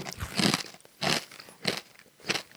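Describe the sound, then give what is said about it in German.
Crunching spicy wasabi nuts: four loud, crisp bites in a steady rhythm, each a bright crackling burst with short quiet gaps between, no talking. “Also es hört sich sehr crunchy an, auf jeden Fall schon mal.”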